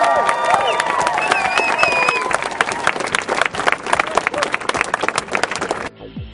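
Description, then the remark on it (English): A crowd at the Occupy Wall Street protest site claps and applauds steadily, dense overlapping hand claps with some voices and whistle-like cheers mixed in, lasting about six seconds before cutting off abruptly. “So that's what it sounds like at the Occupy Wall Street site these days.”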